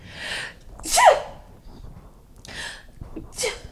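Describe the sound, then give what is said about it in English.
A single sharp sneeze bursts out about a second in, surrounded by a few softer breathy huffs and sniffs; no clear talking is heard. “Bless you.”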